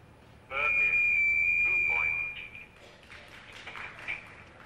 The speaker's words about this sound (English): you could hear that long sound of uh, radio